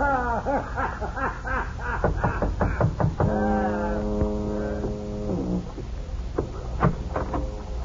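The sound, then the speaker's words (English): A steamer horn beyond the mouth of a bay sounds one long, steady blast lasting about two seconds, deep and buzzy with rich overtones, after a stretch of wavering, voice-like tones and before a few soft knocks. “You can hear the easy flap of the bay against Jeff's Fisher, the throaty blast of a steamer beyond the bay's mouth.”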